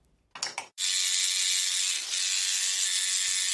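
A coil tattoo machine fitted with a liner needle starts with a few quick mechanical clicks, then runs with a loud, steady, sharp electric buzz full of high overtones that holds to the end, dipping briefly midway.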